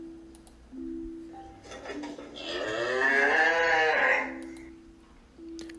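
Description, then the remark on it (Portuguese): A cow lets out one long, drawn-out moo that swells in the middle and fades away, heard clear over a faint steady background hum. “Os dois estavam passando por dificuldades e já não tinham como se alimentar, pois o único bem que possuíam era uma vaca que já não dava mais leite.”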